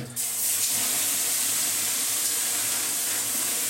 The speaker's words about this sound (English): right, folks, what you're hearing is steam. you are be hearing a lot of it.